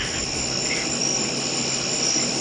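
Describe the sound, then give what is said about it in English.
Crickets chirp in a steady, continuous high-pitched trill for a couple of seconds, fairly loud and even, with no voices or other sounds around them. “Cricket.”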